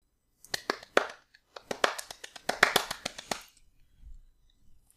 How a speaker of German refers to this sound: Okay. Das war ein Applaus. Wieso applaudierst du? Stehst du? Ja, klar. War das eine Standing Ovation?